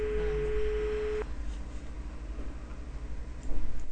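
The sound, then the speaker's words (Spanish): A steady electronic tone like a telephone line signal holds for about a second, then cuts off, leaving a low, even background hum with faint rhythmic ticking, while a caller waits on the line to a ministry hotline. “Y bueno, estoy esperando para hablar con Tolerancia Cero. Y sigue, y sigue.”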